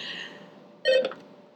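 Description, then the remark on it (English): A short electronic phone tone sequence as another incoming call is connected and put on the phone mic: a fading tonal hum, then a brief, louder burst of stacked beeping tones that cuts off quickly. No one speaks. “oh, we have oh, another, another call. Hold, Hold on. on, we put this put the phone mic up.”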